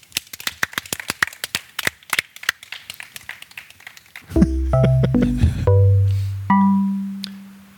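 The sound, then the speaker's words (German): A short burst of audience applause at the end of the official part of an event, dense irregular hand claps for about four seconds, then giving way to sustained low electronic tones and chords. “Wir beenden jetzt den offiziellen Teil ja. und gehen aber nach einem kurzen Applaus in die Nachspielzeit.”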